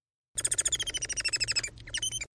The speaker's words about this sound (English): First, a song of a real Bengalese finch.